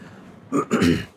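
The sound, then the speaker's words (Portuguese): A person with a chronic respiratory illness clears their throat in two quick bursts: a short rasp, then a longer, rougher one, with no talking around it. “eu peço desculpas pelo pigarro.”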